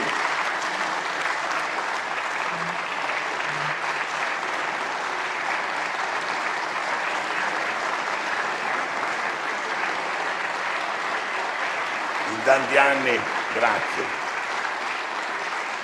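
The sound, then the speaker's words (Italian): Steady, dense audience applause fills the whole stretch at an even level, with a man's voice briefly speaking over the clapping near the end. “Non applaudite troppo”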